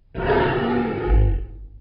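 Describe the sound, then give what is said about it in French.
A single loud lion roar from the MGM film studio logo, made by the lion Jackie from 1928, full-bodied, rising into a deep rumbling swell before trailing off with no other sounds around it. “C'est lui qui lance le premier rugissement sonore du logo avec l'arrivée du parlant.”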